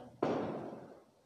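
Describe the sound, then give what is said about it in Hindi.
A single firecracker bursts outside, overhead, with a sharp bang, then a rumbling, echoing tail fades over about a second. No one speaks. “कुछ पटाखे फूट रहे हैं ऊपर I don't know why Diwali तो हो गई है”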